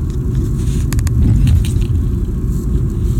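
Steady, loud low-frequency rumble of a car interior while driving, with a few faint clicks or rattles partway through and no one speaking.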